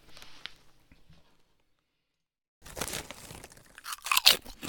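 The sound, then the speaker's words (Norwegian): Crunching as someone at Radio Trøndelag chews a crisp snack called Gastrogull, a few soft bites at first, then a pause of silence followed by louder, dense crunching bursts. “Eh, vi eter eh, gastromat. Gastrogull heter det.”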